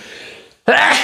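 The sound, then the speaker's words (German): A single sharp, loud sneeze bursts out after a brief hush, preceded by a soft breathy intake; abrupt. “Gesundheit.”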